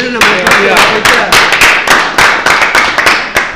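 Loud, close applause from a group, with sharp claps landing in quick, uneven succession and a steady wash of clapping filling the gaps throughout.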